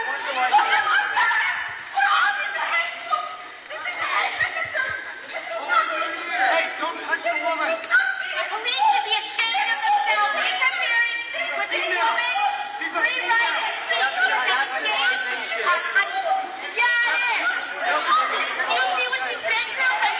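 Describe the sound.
A crowd at a Peel Board of Education public meeting talks over one another in a constant, agitated din, with bursts of laughter and jeering rising out of the noise for the whole stretch.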